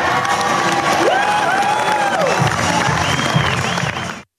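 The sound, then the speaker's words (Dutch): A loud crowd at the presentation of the AMA Mediatalent of the Year award cheers and applauds continuously, with whoops and rising shouted voices over a dense wash of clapping, before the sound cuts off abruptly. “Je hoorde een klein stukje van de uitreiking van de AMA Mediatalent van het jaar.”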